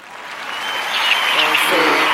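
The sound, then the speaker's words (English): A crowd breaks into a round of applause for a mayor that swells steadily and stays loud, a dense wash of clapping with a few cheering voices rising near the end. “Round of applause to the yeah. mayor, y'all.”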